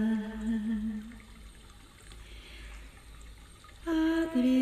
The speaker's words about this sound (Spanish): Agua.